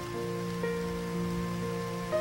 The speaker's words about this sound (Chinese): 外面风夹着雨，劈头盖脸的砸过来。